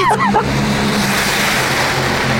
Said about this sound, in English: Meanwhile, as the Clinton bus is rocketing along the highway, somewhere off to the left.